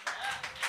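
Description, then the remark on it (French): A brief patter of scattered clapping from a small group of audience members who are still in school, answering a call to applaud, a few uneven bursts of hand claps at moderate loudness, with no one speaking over it. “Euh, y en a-tu qui sont encore aux études par applaudissement?”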